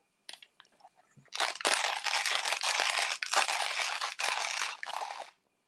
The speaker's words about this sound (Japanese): うん、でこれがコーヒーにおいても非常にたくさんあり、えー、ASMR が発生するタイミングがありまして、まあ、それこそ、例えばミルでコーヒー豆をひく音、うん、